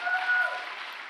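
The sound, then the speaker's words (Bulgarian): An audience claps together in a dense, steady wash of applause that stays fairly even throughout the brief moment, with a faint sustained tone underneath. “О, ако ръкопляскаш, ръкопляскаш, като че вярваш.”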